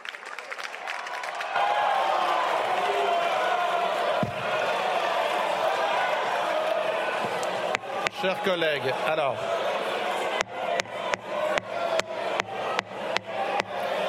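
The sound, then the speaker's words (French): Members of France's National Assembly erupt in loud, sustained shouting and uproar, a dense roar of many voices, with sharp banging or clapping near the end while the presiding officer speaks over the din, telling colleagues not to shout and suspending the sitting for two minutes. “Chers collègues, ne hurlez pas. J'ai entendu. Ne hurlez pas. Je suspends deux minutes.”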